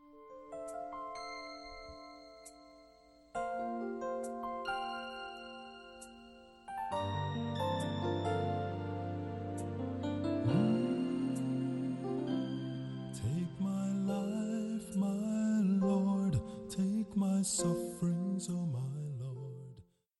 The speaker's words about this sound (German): Jetzt aber … und seine Band.